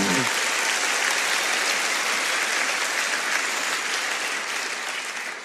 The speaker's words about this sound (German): Und dafür sollten wir immer einen richtigen Applaus geben heute Morgen.